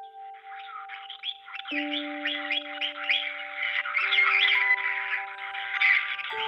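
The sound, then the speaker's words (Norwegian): Parrots in a bird shop chirp and squawk continuously in a busy, overlapping chorus, with steady electronic-sounding tones running underneath throughout; no one speaks. “Han lærer papegøyene å svare telefonen og si hei til kundene.”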